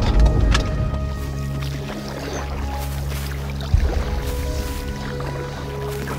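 Paddling a small boat among alligators at Deep Hole on the Myakka River in Myakka River State Park, with splashes and dips of the paddle over steady water noise and a low hum, plus a sharper knock partway through.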